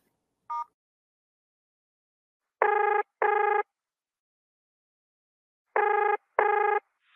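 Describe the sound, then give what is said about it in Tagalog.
A short electronic beep, then two pairs of telephone ring tones, each burst lasting about half a second, repeating in the steady pattern of an outgoing call's ringback. No one speaks. “Tawagan ko nga”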